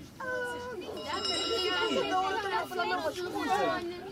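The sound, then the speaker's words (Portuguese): A school bell rings steadily in a school playground over a crowd of children chattering and shouting, its bright tone sustained for a couple of seconds beneath the busy playground voices. “apanhei um grande susto quando vi no recreio a tocar a campainha”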